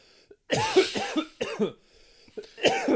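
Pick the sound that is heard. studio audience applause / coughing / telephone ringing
coughing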